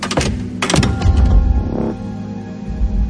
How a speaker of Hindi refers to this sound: दोनों खिड़कियां जोर जोर से आवाज करती हुई बंद हो गई